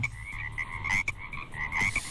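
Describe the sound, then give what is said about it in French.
A chorus of frogs croaks steadily, repeated rhythmic calls with a bright, buzzy tone layered over a low background hum, moderately loud, with no voices. “Je vous ai trouvé une info sur les grenouilles ce matin.”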